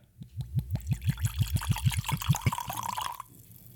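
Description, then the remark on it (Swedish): Liquor glugs out of a classic medicine-style bottle in a quick, regular series of about a dozen gurgling pulses, then settles into a brief steady pour that rises in pitch before stopping. Clear, no talking. “Nu kör vi. Häller upp här.”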